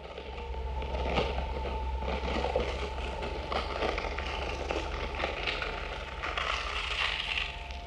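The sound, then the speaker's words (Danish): Experimental music made by composer and sound designer Asger Kudal from compost heap sounds for the miniseries Kompostens Kosmos: dense crackling and rustling textures over a steady low drone and a faint sustained tone, continuous and moderately loud with no voices. “Asger var sidst med i podcasten, da han lavede musik ud af en kompostbunke til miniserien Kompostens Kosmos.”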